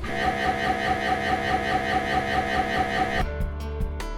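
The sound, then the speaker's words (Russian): A loud, steady electronic drone of an MRI scanner with a harsh buzzing tone, shifting near the end into a series of rhythmic pulsing knocks. No voices are heard. “Иногда пациентам даже выдают беруши, потому что обычно аппарат звучит примерно так.”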